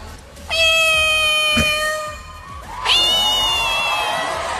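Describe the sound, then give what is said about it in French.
A woman on stage, being asked questions, imitates a cat, producing two long, loud, whining meows with strong wavering harmonics, the second rising sharply before trailing off. “Elle dit qu'elle aime les chats et elle dit à quel point elle, est bien euh, capable de, de, recréer le miaulement d'un chat.”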